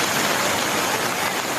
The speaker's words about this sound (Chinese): 雨ももあのバケツをひっくり返したようなものすごい雨ですので